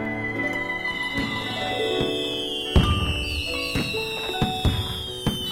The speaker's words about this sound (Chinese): 那天梁府的烟花非常绚丽，我觉得一点儿也不美。